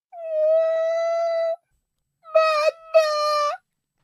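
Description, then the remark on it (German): A voice imitates a small child's wailing cry: one long, steady, high-pitched wail, a pause, then two shorter wavering wails, loud with no other sounds. “Kleinkindergeschrei, was schon mal per se sich anders anhört.”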